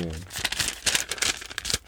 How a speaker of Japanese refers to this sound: 机の上で綺麗に端と端を合わせて折るっていうのじゃなくって、うん、どちらかというとこう空中でパパパパッとこうなんかね形を折っていく創作折り紙をやろうと。